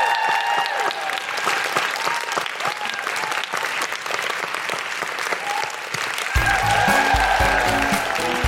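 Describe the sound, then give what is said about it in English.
The audience at a recording of The Guilty Feminist bursts into sustained applause for Daisy Haggard, dense and steady clapping with some cheering mixed in; near the end a low musical sting comes in beneath the clapping. “Um, big round of applause for the incredible Daisy Haggard.”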